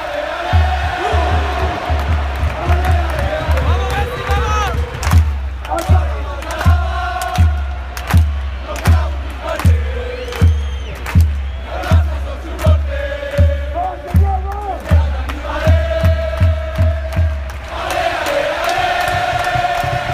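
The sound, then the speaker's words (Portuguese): Organized football supporters in a stadium sing a chant in unison while standing during a match, loud and sustained, driven by a steady, regular drumbeat throughout, with the melody rising and falling in repeated phrases. “Agora finalmente com o gol do Soares o time acordou a torcida também acordou, tá com um pouco mais com sensação de estádio, jogo de futebol e umas musiquinhas legais agora com a torcida organizada cantando em pé.”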